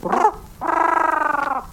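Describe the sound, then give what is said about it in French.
A voice imitates a pigeon's cooing: a short throaty note, then a sustained, warbling coo with a rapid pulsing tremor, fairly loud with no talking. “fais le pigeon”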